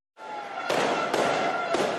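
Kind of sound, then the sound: sound effect, fireworks and firecrackers exploding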